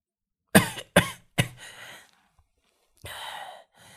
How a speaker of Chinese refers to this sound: 爷爷却笑了笑，又咳嗽了几声。